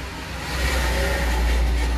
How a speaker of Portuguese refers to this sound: Vai ter um ruído agora, um caminhão passando aqui do lado, tá?